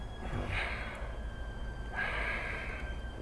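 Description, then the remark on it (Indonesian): A voice imitates heavy, deep breathing: two long, rasping breaths, one short and one drawn out, loud, with no talking around them. “berarti kan tuh suara napas bang gue mikir nih”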